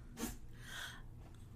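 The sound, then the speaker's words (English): A male dog sneezes once, a short sharp burst followed by a snuffly exhale, with no talking. “My dog is sneezing.”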